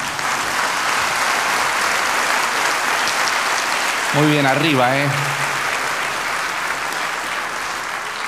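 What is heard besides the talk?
audience applause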